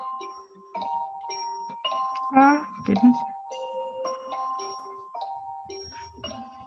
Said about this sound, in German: So, jetzt klingelt mein Handy. Ich schalte es mal auf.